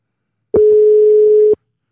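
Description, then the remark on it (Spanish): A telephone ringing tone, from a call placed on a phone connected to radio broadcast equipment, sounds once as a loud, steady, low-pitched electronic tone lasting about a second, starting and stopping abruptly, with no voices around it. “Y vaya que está sonando.”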